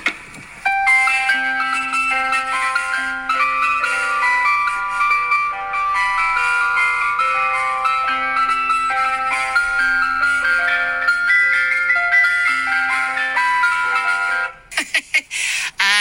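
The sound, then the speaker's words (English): An ice cream van plays its chime tune, the Match of the Day theme, a bright, tinkly melody of repeating electronic notes running steadily for about fourteen seconds before cutting off abruptly. “Does your van make a tune?”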